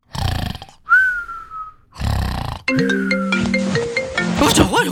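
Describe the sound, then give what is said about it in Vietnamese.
A phone ringtone plays a bright, melodic electronic tune, a client calling at 3 a.m.; it starts partway through and continues to the end. Before it, there are loud, rough snore-like breaths and a brief whistling tone. “ôi điện thoại điện thoại điện thoại”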